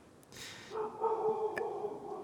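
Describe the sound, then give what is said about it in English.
Faint dogs yip and whine in a high, drawn-out way, with a short burst of rustling noise just before. No one speaks. “Oh, my dogs are making a guest appearance.”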